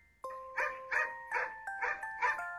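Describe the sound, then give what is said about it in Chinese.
A dog named E.T. gives a threatening growl in six short, rhythmic pulses over a steady tonal hum, moderately loud, with no one talking. “发出威胁的低吼”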